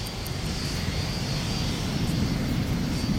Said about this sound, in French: le Fléchette 3000, l'avion supersonique d'Igens Bond, file à toute vitesse à travers les nuages, direction le Grand Nord.